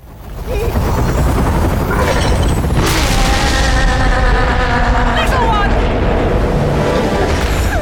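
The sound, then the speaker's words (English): Explosions in the video game Bayonetta as the entire airfield explodes in the distance: a loud, continuous low rumble with sharper blasts cracking through around the three- and five-second marks, layered over sustained tonal sound. “In the distance, the entire airfield is exploding.”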